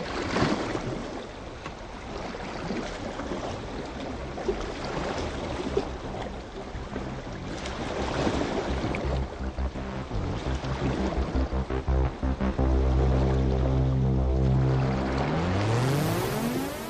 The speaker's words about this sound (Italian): Mettiamo a mare il battellino di bordo.